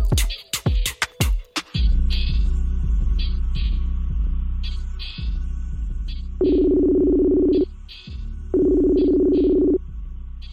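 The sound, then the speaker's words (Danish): A telephone call to Aarhus being dialed: a few clicks, then a series of short electronic beeps, followed by two long, steady ringback tones over a constant low hum. “jeg øh, har ringet til dig fra Aarhus, øh, hvor du øh, bor.”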